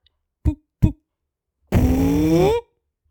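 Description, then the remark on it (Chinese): A voice imitates a hippo's fart while telling a children's story: two short, soft puffs, then a long buzzy blat lasting about a second, its pitch wobbling before it cuts off. No other sounds follow. “可是没想到，河马一放屁，刚刚那些叮叮咚咚的声音全部都停下来了。”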